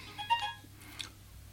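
A mobile phone rings with a short burst of bright, chirpy electronic tones, fairly quiet, followed by a second brief tone, over a low steady hum.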